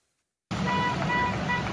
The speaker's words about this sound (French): Et sur leur trajet en direction de Paris, les agriculteurs ont pu constater le soutien des Français. Klaxon, applaudissements, le soutien populaire est grand, de quoi conforter les agriculteurs dans leurs revendications.